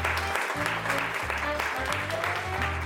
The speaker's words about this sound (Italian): Un altro applauso.